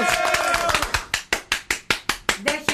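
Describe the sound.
A single pair of hands claps steadily, about a dozen sharp, close claps in an even rhythm, with a voice speaking briefly over the first few.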